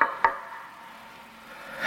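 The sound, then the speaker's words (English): A single sharp knock on an office door rings out, followed by a low steady hum with no voices. “I finally get myself together, and then there's a knock on the door.”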